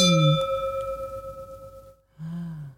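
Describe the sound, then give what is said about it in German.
Wine glasses clink together with a bright ding, then a clear ringing tone sustains and slowly fades, followed by a second softer clink near the end. No voices. “Und manchmal bin ich so gierig, dass ich das Glas ansetze und trinke, bevor der Ausklang da war.”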